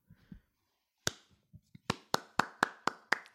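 Hands clap sharply, first a single loud clap, then after a few soft taps a steady run of about six crisp claps at an even, brisk pace. No one speaks.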